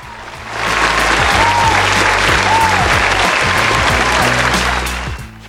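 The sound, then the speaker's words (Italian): Loud, dense applause from a crowd swells in quickly, holds steady for several seconds with a few faint whistles, then tapers off at the end. No one speaks. “Proprio il vincitore indiscusso, The Best Prete of the Year. Applausi!”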